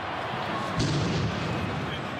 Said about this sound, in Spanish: Con esa explosión que apenas se oye.